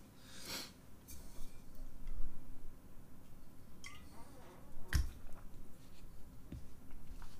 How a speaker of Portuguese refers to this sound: Enquanto eu guardo meu livro e tomo uma água.